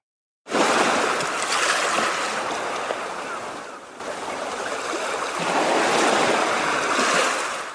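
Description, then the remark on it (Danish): Steady ocean surf washing onto a beach, a broad hissing roar that swells and recedes in slow waves, with a brief lull midway before the next surge builds; no voices. “Jeg ved ikke, om I lige kan forestille jer at ligge på en strand og lytte til det her, mm.”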